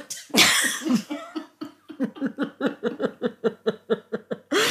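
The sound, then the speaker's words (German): A loud coughing fit, starting with one harsh wet cough, then a long run of quick rhythmic hacking coughs, about a dozen in a row, before a final burst. “ist aber nicht mehr grün, was da rauskommt.”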